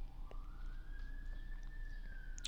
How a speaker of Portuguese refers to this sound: Os bombeiros aqui passando.